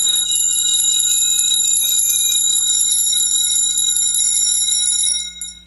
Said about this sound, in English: copper chimes, all tuned to the same note plus octave, and in fact deliberately slightly detuned